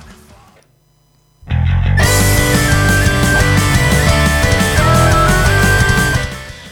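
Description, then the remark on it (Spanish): A loud, full band track kicks in after a brief quiet stretch, with driving bass, distorted guitars and a sustained lead melody, then fades slightly at the end. No one speaks. “cuando suena este tema de nuestros amigos de …, que nos han dado todos sus derechos para ponerlos de fondos en nuestro podcast”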